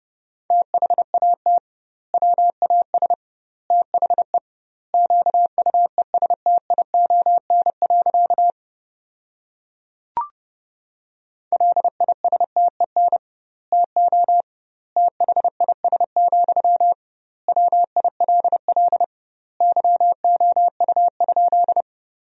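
A steady single-pitch tone keys on and off in rapid Morse code bursts at 30 words per minute with double word spacing, sentences built from the top 400 words, fast dots and dashes grouped into words with short pauses, broken by one sharp click near the middle.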